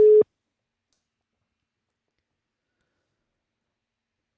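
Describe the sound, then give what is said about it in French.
A single brief telephone ringback tone, heard while placing a call by dialing a number: a steady electronic beep lasting a fraction of a second sounds clearly at the start and is followed by several seconds of silence. “Je suis hyper concentré à chaque fois que je fais un numéro. Ok. C'est Auguste que j'appelle.”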